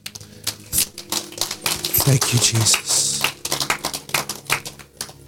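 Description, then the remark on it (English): A worship audience claps hands in praise to the Lord, a dense, uneven patter of many overlapping sharp claps, with voices calling out over it and a low hum underneath. “Give the Lord a hand clap and praise.”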